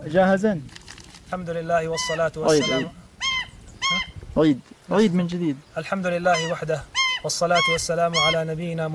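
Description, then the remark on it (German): A man kneeling before a camera delivers a message in a propaganda video while a bird chirps in repeatedly, bright short calls cutting into his speech each time he starts again, loud and clear over the voice. “Jedes Mal, wenn er wieder ansetzt, zwitschert der Vogel dazwischen.”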